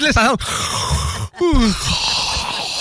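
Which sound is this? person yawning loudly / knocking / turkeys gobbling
person yawning loudly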